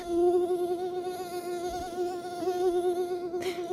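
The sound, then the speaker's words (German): A mosquito's thin, high-pitched whine drones steadily and continuously, wavering slightly in pitch as it hovers, with no voices. “Kaum ein Tierlaut nervt Menschen so sehr wie das hohe Sirren, besonders wenn es nachts im Schlafzimmer direkt neben dem Ohr auftaucht.”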